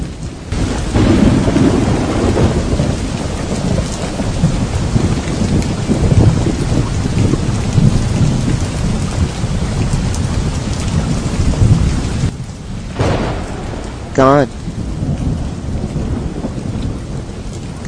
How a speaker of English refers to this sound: Gone are the days I can listen to the rain falling down outside my window pane and not think it is some enemy trying to wash us away.